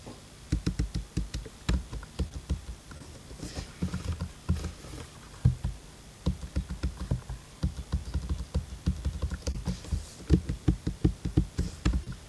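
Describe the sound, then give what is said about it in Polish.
Steady typing on a computer keyboard by a user during a conversation over the TeamTalk program: quick, irregular bursts of light clicking keystrokes with brief pauses between runs, continuing throughout with no voices. “Jak słychać, no, że piszesz to wiadomo, natomiast no, myślę, że jakoś mocno nie będzie to przeszkadzało y, w trakcie rozmowy.”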